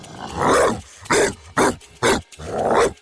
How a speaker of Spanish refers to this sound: los ladridos del perro inundan sus oídos